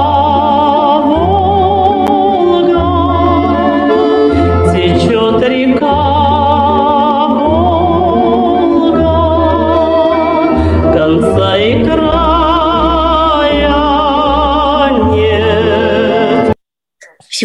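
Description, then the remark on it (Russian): A song about the Volga river plays loudly and continuously, a sustained sung melody over a steady pulsing bass line, cutting off abruptly just before the end. “Зато мы сейчас проверим, а у кого музыкальный слух, кто на дальнем фоне вот этих всех словосочетаний услышал правильную мелодию. Да, и включим ответ правильный.”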